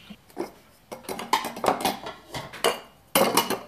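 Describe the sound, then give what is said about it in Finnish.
Sarvis plastic dinner plates, deep and flat plates from the Pitopöytä series designed by Kaj Franck, clink and knock together as they are handled, a series of uneven, clattering taps with short bursts of rattling and no talking. “Ja täällä on tietysti yhdet mun kaikkein niin kuin, mielestä hienoimmista sarvisastioista, eli nämä Kai Frankin suunnittelemat pitopöytä, sarjan syvät lautaset ja matalat lautaset.”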